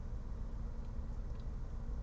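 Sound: car driving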